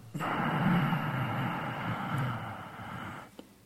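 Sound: ujjayi breathing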